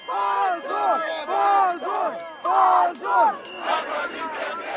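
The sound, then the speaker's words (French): A large crowd of protesters in Russia chants in unison outdoors, demanding a prisoner's release, loud rhythmic bursts of massed voices repeating a slogan roughly every half second, with a sustained roar of many people beneath. “Mais deux jours plus tard, alors qu'il est toujours en prison, des manifestations sont organisées en Russie pour réclamer sa libération.”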